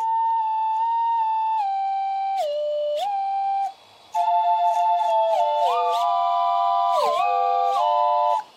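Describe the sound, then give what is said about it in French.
A MIDI-controlled mechanical slide whistle, its slide moved by a mechanical and electronic interface and its mouthpiece fed by an air pump, driven from a MIDI keyboard, plays a stepping melody of loud, steady tones with quick glides between notes, pauses briefly, then returns with several overlapping whistle lines moving together. No one speaks. “Sur sa lancée, il a créé le sifflet à coulisses midi.”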